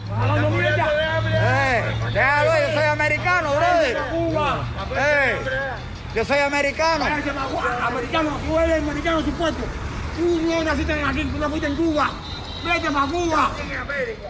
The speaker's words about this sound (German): es geht lautstark zu. Zehn Kubaner diskutieren, brüllen, sitzen im Kreis.